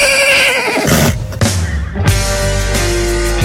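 A loud horse whinny with a shrill, wavering call that drops off after about a second, followed by a brief pause and then full, steady music.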